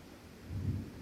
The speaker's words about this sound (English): Listen to the thunder in the skies the thunder of it